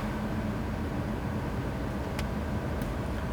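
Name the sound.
car interior noise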